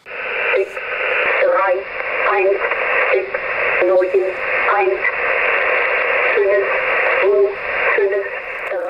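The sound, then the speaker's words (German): A shortwave numbers station broadcast picked up on a world-band radio receiver: a thin, tinny voice speaks in short, evenly spaced bursts over a constant wash of radio hiss, loud and steady throughout. “Also Zahlensender und ich habe da als Teenager stundenlang mitgeschrieben.”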